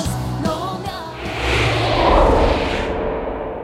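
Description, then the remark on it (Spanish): A church audience breaks into applause for God, a dense wash of clapping that swells to a loud, sustained peak and then begins to thin out, with faint music underneath at the start. “Iglesia, dale un aplauso a Dios.”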